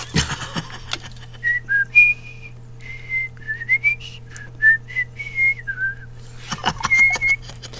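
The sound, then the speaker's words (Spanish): A person whistles a short melody read from sheet music, a string of clear pitched notes rising and falling in a steady phrase, moderately loud over a low hum. “A ver, chiflala. Ahí te va.”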